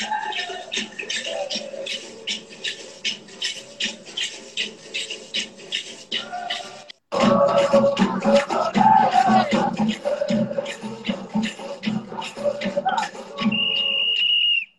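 Bumba Meu Boi folk music: steady pounding percussion beats under a chorus of singing voices, growing louder after a brief pause midway, with a sustained high whistle blast near the end.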